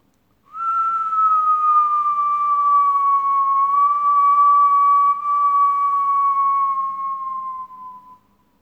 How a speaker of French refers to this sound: Vos épaules et vos trapèzes sont totalement détendus et vous continuez à inspirer par le nez et à expirer en sifflant le plus longtemps possible tout en étant dans une pratique confortable. Continuez à votre rythme.